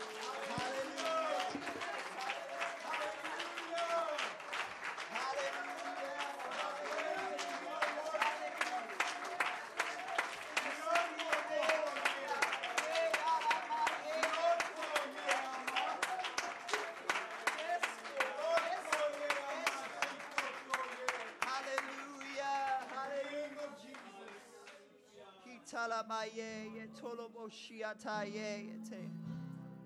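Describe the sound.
An audience claps hands to Jesus with a shout of praise, in a dense, steady, loud stream of overlapping claps with voices shouting over it; the clapping thins out toward the end, leaving mostly voices.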